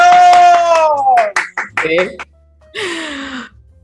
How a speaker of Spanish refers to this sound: aplausos.